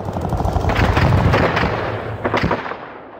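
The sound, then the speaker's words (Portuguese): Rapid bursts of gunfire crackle over a dense, rumbling roar of explosions, loud and chaotic like a battle scene, with a few sharper blasts standing out before the din fades. “Saiu às ruas, pegou em armas e tirou o rei do trono. Com tiro, porrada e bomba.”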